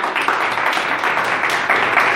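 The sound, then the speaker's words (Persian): An audience applauds steadily, a dense, even wash of many hands clapping that holds at a constant level for the full couple of seconds, with no voices on top. “ببینید تشویقش هم بفرمایید”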